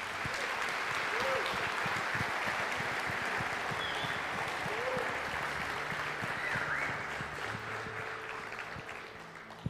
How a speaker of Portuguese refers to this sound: Dê um forte aplauso a Jesus nesse lugar.